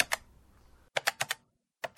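Crisp computer keyboard keystrokes with no voices: a lone tap, then a quick burst of four clicks in a row, and one more tap after a short pause, as someone types to start playing surveillance camera footage from a food factory entrance.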